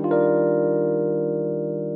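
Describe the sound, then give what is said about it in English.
A single piano chord, an E flat major 9, is struck once and left to ring, its rich layered tones sustaining evenly for about two seconds with no voices. “The chorus is in E flat major 9,”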